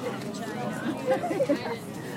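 A steady murmur of many overlapping voices fills an open space, with no single conversation standing out, from a busy crowd milling around an outdoor art fair in Madison, Wisconsin, USA, in July 2022.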